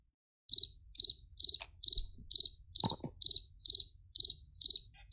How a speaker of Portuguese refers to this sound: Põe um grilo, põe o um grilo aí. É, põe, eu vou colocar o grilo aqui, ó.